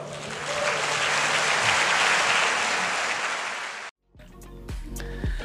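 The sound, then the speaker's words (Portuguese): An audience applauds the Lord in a dense, steady wash of clapping for about four seconds, then it cuts off abruptly and soft music with a low bass tone follows. “Aplauda ao Senhor.”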